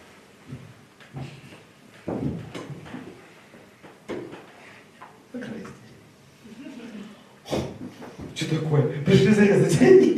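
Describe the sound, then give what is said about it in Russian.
A door is pulled shut with a brief bang and rattling clatter near the end, fairly loud, after stretches of people talking quietly; a boy has been asked to close the door from the outside. “мальчик, закройте дверь со стороны, пожалуйста.”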